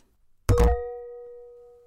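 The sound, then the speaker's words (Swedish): Glasses clink together in a toast: a quick double knock followed by a clear ringing tone that fades slowly in otherwise quiet surroundings, with no voices. “Bra jag fick en bra skål. skål för en gångs skull.”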